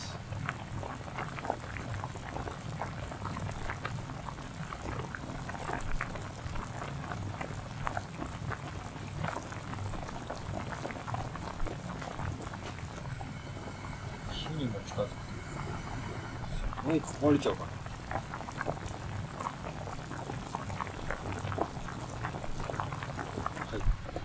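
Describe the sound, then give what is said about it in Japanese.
A pot of pasta boiling up close, with a dense, steady rolling bubble and hiss that continues evenly throughout, a few sharper pops and clinks briefly rising above it. “あとまだ2分あるんですけどじゃあパスタが茹でてる模様を鍋近づけてます”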